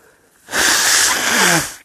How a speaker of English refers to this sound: oh my gosh, I'm about to sneeze. Excuse me.